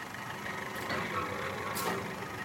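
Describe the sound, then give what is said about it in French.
Car sheet metal crumples and crunches in two harsh bursts as the claw of a mechanical arm squeezes it in a car scrapyard, over the steady rumble of the machine's running engine. “La tôle se froisse sous la pince d'un bras mécanique.”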